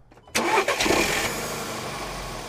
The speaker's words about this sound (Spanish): De un momento a otro, el leve rugido del motor en espera se tornó muy ruidoso.